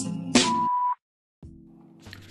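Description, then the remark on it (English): A single steady answering-machine beep on a song's hotline voicemail, a clear mid-pitched electronic tone lasting about half a second after a brief burst of noise, followed by silence and then a low phone-line hum. “Please leave message at the sound of the beep.”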